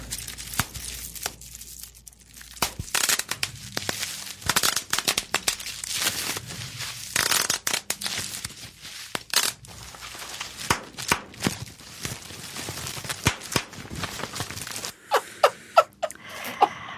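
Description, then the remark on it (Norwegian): Bubble wrap being squeezed and popped by actor Jake Gyllenhaal during an ASMR interview for W Magazine, with a dense, irregular run of sharp snaps and crackles mixed with crinkling plastic, some pops louder than others. No one speaks. “This is uh, bubble wrap.”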